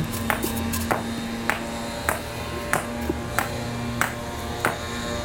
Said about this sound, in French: On s'y trompe rarement. Les bruits d'un chantier sont facilement reconnaissables.